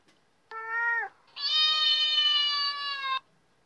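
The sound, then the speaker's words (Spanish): A cat meows twice, loud: a short meow followed by a longer, drawn-out one lasting nearly two seconds, with no other sounds around it. “tenía que darle el gato que le llevaba de regalo antes de que se fuera de regreso a su casa.”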